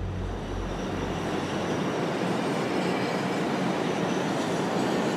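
Yellow Berlin U-Bahn subway trains pass at Park am Gleisdreieck in Berlin, a steady loud roar of wheels on rails with faint rhythmic clatter, no voices.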